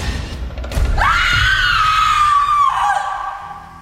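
A woman lets out one long, loud, high-pitched scream lasting nearly two seconds, its pitch sliding gently downward before it breaks off, preceded by a brief burst of thumping noise.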